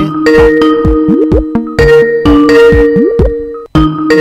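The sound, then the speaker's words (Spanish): A Skype outgoing call ringtone plays loud, a bright melodic jingle of bubbly tones with quick upward and downward pitch glides, repeating in two phrases with a short gap between. “Estamos llamando pueden escuchar el famoso ringtone de”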